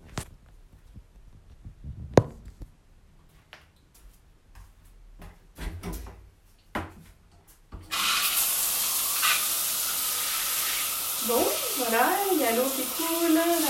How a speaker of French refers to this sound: je vais enregistrer ma douche. Donc euh, évidemment il y aura le bruit de l'eau qui risque de polluer un petit peu l'enregistrement.